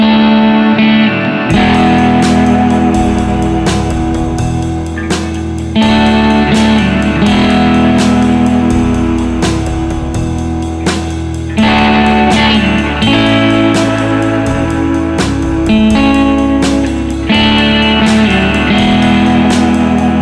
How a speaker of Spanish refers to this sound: fue la primera canción que ya en 1958 introdujo distorsión en el sonido de la guitarra eléctrica, bueno, pues en su época las emisoras de radio lo consideraban, te lo digo textualmente, insoportables disonancias